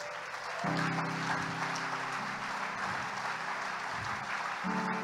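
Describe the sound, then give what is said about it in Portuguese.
A church audience applauds steadily for several seconds in praise of the Messiah, a dense wash of clapping with a low sustained hum or organ tone underneath. “Aplauda o Messias que você serve.”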